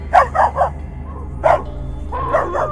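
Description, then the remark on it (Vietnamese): A dog barks in short bursts: three quick barks, a pause, one more, then a final pair, with a low steady hum running underneath. The dog is in a brick-paved courtyard after midnight, scratching its front claws on the bricks and growling. “Bỗng nhiên nhảy phốc ra giữa sân gạch rồi cứ như vậy cào cào những móng vuốt của hai chân trước xuống nền gạch Miệng gầm gừ lên”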